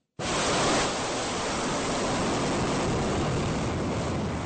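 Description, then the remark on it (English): A loud launch roar of a ballistic missile fired by North Korea over Japan bursts in abruptly and holds as a steady, dense rushing wall of noise for several seconds, with no voices and no letup. “Well, that is sound of North Korea Tuesday firing a ballistic missile over Japan, which the prime minister's office said landed in the Pacific Ocean.”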